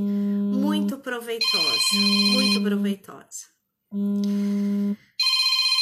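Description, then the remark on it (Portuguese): A telephone rings repeatedly in steady electronic bursts, each about a second long with short gaps, loud, while a woman keeps talking over the first rings. “Aqui, desculpe o telefone, mas ele não para, né?”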